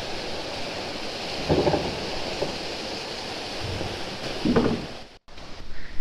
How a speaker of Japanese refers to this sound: ここのカラウスはテンポが速いですね水の量が豊富なんでしょうか早い展望でトントントントンついてますね